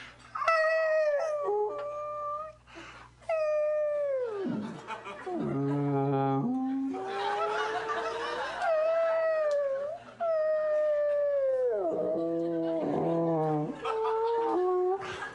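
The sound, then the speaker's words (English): Whale song calls: a series of long, loud, mournful tonal cries that swoop and slide downward, one after another, with a rougher, noisier groan partway through. “He's out on a ship, he's got a pencil, and he deciphers the whale noises as he hears them.”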